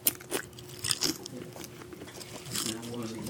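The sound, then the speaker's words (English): Crispy bacon crunches loudly in a few bites as the world's oldest person eats her breakfast, sharp brittle crackles followed by softer chewing, with faint voices murmuring in the background. “And this is probably the most famous bacon crunch you will ever hear.”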